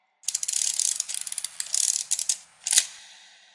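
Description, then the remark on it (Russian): The self-timer of a Zenit 11 Soviet film SLR camera, a model popular in the 1980s, whirs with a rapid mechanical ratcheting buzz for about two seconds, then a brief pause and a single sharp shutter snap. No one speaks. “У пленочного фотоаппарата «Зенит» 11 модели, которая была популярна в 80-е годы в Советском Союзе, есть возможность автоспуска, и она длится 15 секунд”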